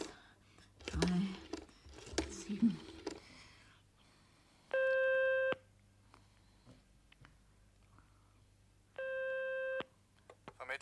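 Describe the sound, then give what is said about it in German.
A telephone ringback tone sounds twice, each a steady electronic burst under a second long separated by a pause of several seconds, preceded by soft clicks and handling noises over a low hum. “Indigniert setzte sie sich auf die rachitische Couch und entdeckte das Telefon auf dem Schreibtisch.”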